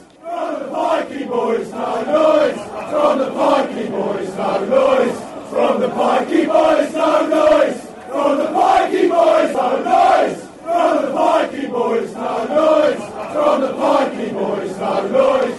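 A large crowd of football supporters chants a taunting song in unison at West Ham fans, insulting them as gypsies and travellers, loud, with a steady rhythmic melody carried by many voices and brief pauses between phrases.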